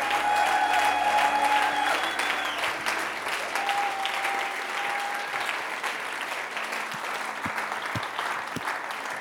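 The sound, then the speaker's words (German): Sustained audience applause at a church, a dense steady wash of many hands clapping at an even loudness for several seconds, with a faint crowd murmur underneath and no clear speech, given for people who responded. “Können wir ihnen einen großen Applaus geben?”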